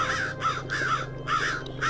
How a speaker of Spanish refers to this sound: El sonido de un cuervo indicó que la noche había llegado.